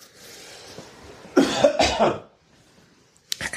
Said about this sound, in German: habt ihr nicht alle gesagt, ich huste nicht mehr so viel, wenn ich nicht mehr rauche? Naja, alles Lüge.